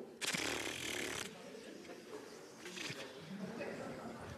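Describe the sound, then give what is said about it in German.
A group of people imitates the rustling of trembling poplar leaves, starting with a loud, dense burst of hissing rustle, then settling into a softer, fluttering rustle that swells briefly again. “Die zitternden Pappeln.”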